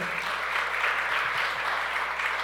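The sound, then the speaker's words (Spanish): Steady, dense applause from an audience during a sermon fills the whole moment, a continuous wash of many hands clapping at a fairly even level with no voices standing out. “Dile otro aplauso fuerte.”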